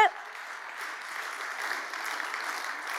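A crowd applauds steadily with scattered cheers, a dense, even wash of clapping that holds at a constant moderate level for a few seconds.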